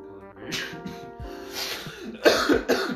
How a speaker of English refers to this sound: Damn, bro, what is that? Why are you coughing like that? Oh, don't worry, I don't smoke weed.